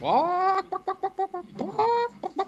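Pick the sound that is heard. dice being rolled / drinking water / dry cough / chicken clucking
chicken clucking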